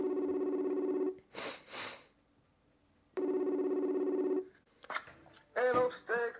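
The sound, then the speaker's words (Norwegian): A phone line rings out twice on an outgoing call to a contact in England, each long electronic tone followed by a pause, with brief rustling noises between them and a voice starting to speak as the second ring ends. “ringer sin kontakt i England for å si at nye filmer om norske menn er på vei.”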